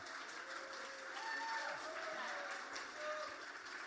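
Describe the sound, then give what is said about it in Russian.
A church audience claps steadily throughout, a dense wash of applause at moderate volume with faint voices and cheering mixed in, holding level for a few seconds without fading, welcoming a preacher. “Давайте большие аплодисменты.”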